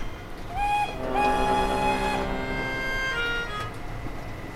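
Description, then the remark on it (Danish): A factory steam whistle sounds to signal the lunch break, sliding up in pitch then holding a loud, shrill, steady tone for about two seconds over a low rumbling background before cutting off. “Margarinen fløj forbi Anders' øjne, indtil han blev svimmel, da dampfløjten endelig hyldede til frokostpause.”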